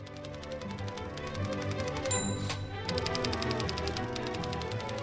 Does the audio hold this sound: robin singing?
no